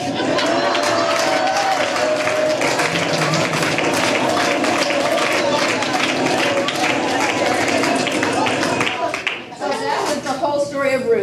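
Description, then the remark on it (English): An audience claps steadily and loudly for about nine seconds, a dense wash of many hands, before the applause drops away and a voice starts talking. “Go ahead, you can clap.”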